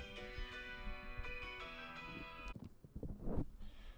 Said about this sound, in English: And another disturbance, uh, phone call.